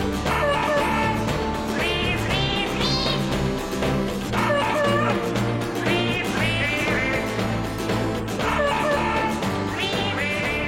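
A loud, steady guitar tune played together with a dog, a duck and also a cat, the barks and quacks recurring in rhythm with the melody. No one speaks.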